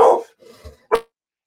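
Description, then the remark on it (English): Dogs bark: one loud bark, a brief muffled scuffle, then another sharp bark, with no talking over them. “My dogs are Crazy.”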